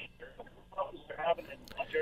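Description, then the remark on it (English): A caller's voice comes through a thin, narrowband phone line, choppy and garbled, with words cutting in and out as the connection breaks up over about two seconds. “Okay, your phone your phone's not your phone connection is not the best.”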